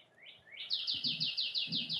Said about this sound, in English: Ooh, that's like is that a robin? Hold on. Yeah. Oh man. There's one out in the backyard.